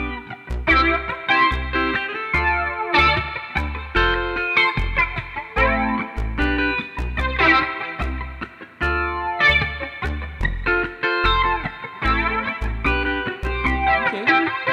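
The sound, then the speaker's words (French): A synth bass line plays alone in a steady rhythmic pattern, loud and upfront, with bright harmonic-rich tones and a fuzzy, processed edge, no voices present. “Mais je veux un meilleur son de que ça. Je veux comme un nasty fat bass, là.”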